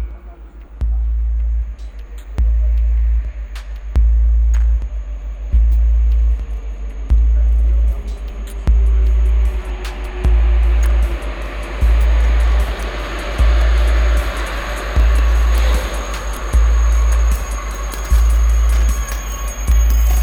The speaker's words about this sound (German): Voie 4, le TGV Lyria entre en gare. Voie 4 éloignez-vous du bord du quai.